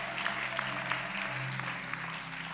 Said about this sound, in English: Clap your hands and, and give him praise.